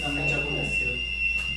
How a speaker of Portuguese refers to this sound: Isso é um alarme de incêndio? É, é.